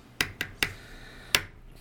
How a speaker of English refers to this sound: Where's the hammering coming from?